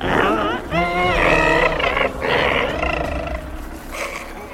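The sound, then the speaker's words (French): A loud, intense creature growl rumbles, its warbling, shifting pitch stretched over several seconds in two or three surging bursts before trailing off, with no talking. “Les deux enfants s'éloignaient de Kalmada lorsqu'ils entendirent un grognement intense.”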